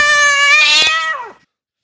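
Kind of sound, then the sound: sound effect, cat meowing jingle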